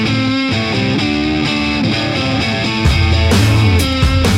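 A loud rock song played on the radio station Kanal K, with heavily distorted electric guitar riffing in a steady, chugging rhythm over driving drums and bass, growing denser and heavier partway through, with no vocals.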